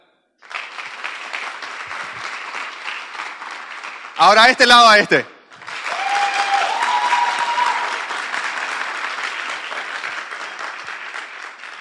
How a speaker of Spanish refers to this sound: ¿Y por qué, por qué no se dan un fuerte aplauso a sí mismo? Pero, ah, no, no, no, no, ah, ah pues, vámonos, dale un, dale un tiempito. Este, este lado le va a aplaudir a este, vamos, adelante.